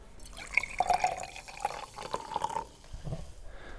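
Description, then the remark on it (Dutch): Carbonated water from a home soda-making machine is poured into a glass, making short bubbly gurgles and a light fizzing hiss over a few seconds, with no one talking. “En dan heb je ineens een glaasje bubbels voor je neus staan.”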